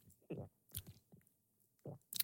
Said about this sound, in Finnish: Pidätät hengitystä ja sitten nialaset neljä kertaa.